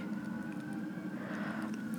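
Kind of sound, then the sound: vehicle, emergency vehicle sirens outside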